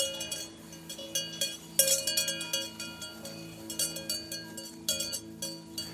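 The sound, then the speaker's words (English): A flock of sheep passes by an audio recorder on a field just outside Sibiu, Romania, their many bells clanking and jingling in an irregular, overlapping stream, with one sharper bright clang standing out. No voices are heard. “But what I got was a flock of sheep passing by my audio recorder in just the right moment.”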